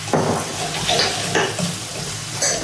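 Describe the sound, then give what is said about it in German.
Red lentils and meat being browned sizzle in a pan with a steady bright hiss, broken by a few scraping bursts as the food is stirred. No one speaks. “Guck mal, jetzt habe ich die Linsen mit dem Fleisch so schön angeröstet und nun?”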